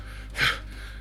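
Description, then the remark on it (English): One short, breathy gasp, like a winded intake of air, a person performing the exhausted panting of a character with hands on his knees, surrounded by a quiet low hum. “then hands on his hands on his knees like that, like panting, like”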